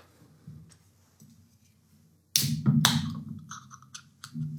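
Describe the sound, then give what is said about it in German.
A 0.355-litre can of beer from a brewery in Plankstadt, Schwetzingen, is cracked open: a sharp metallic snap, then a brief burst of hissing fizz and some lighter clinks, following a few seconds of near silence. “Also, wie ihr gehört habt, eine Dose.”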